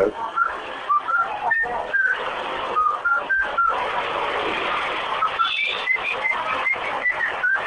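Someone whistles a short melody of bright, stepping notes, some rising and falling, set against a steady hiss of background noise. The tune is moderately loud, with brief pauses between phrases.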